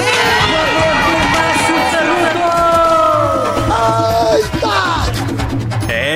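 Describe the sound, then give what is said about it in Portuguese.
A loud, energetic intro jingle for the Márcio Canuto segment, with bright sliding tones and sustained notes over a busy backdrop of crowd noise and cheering, running continuously for several seconds. “Daquele, solta a vinheta aí”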